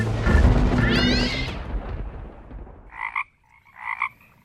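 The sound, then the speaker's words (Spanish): A frog croaks, starting with a dense, noisy burst of calls that fades, followed by two distinct, resonant croaks spaced about a second apart, fairly loud, with no voices. “Creo que se trata de una rana.”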